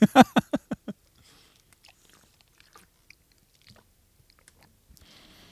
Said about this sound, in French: Je prends une petite gorgée d'eau et je, je change de sujet.